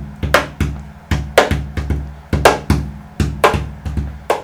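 A hand thumps the back and side of a double bass's wooden body in a quick rhythmic pattern, deep resonant knocks from the back alternating with sharper, brighter slaps from the side, clear with no talking.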